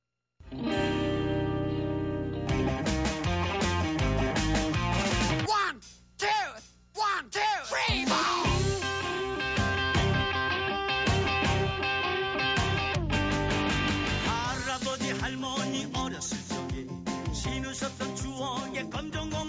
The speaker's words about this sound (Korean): 자, 그러면 검정 고무신의 주제가를 먼저 들을 거고요.